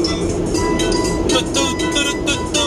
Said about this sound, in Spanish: A lo mejor y se escucha el sonido de las llantas, pero eso es... Creo que nunca he manejado un carro que no... Bueno, no todos, todos, la gran mayoría. Solo un Rolls Royce creo que no suena nada.